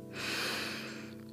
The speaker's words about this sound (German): Atme einmal tief ein und wieder aus. Noch einmal tief einatmen und ausatmen. Und ein letztes Mal einatmen